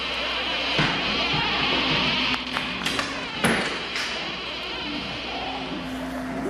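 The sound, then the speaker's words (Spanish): A few scattered thuds of footsteps sound close by over a steady hiss, with faint drawn-out creaking tones as a door slowly swings open, in an abandoned hospital. “Luego, Leo escucha pasos cerca y se abre una puerta lentamente.”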